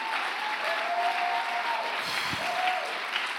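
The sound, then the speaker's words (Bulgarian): A crowd claps steadily, a dense, sustained wash of applause that fills the whole moment at an even level without breaks, with no voices standing out above it. “А, ако ръкопляскаш, ръкопляскай, като че наистина вярваш.”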